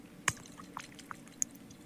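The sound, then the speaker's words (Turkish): A sharp click of a sea-breeze cologne bottle cap opening, then a few soft, scattered drips and splashes of cologne being poured, quiet, with no talking. “Ee, ha bak çok güzel bir kolonya şişesi var. Açayım kapağını da.”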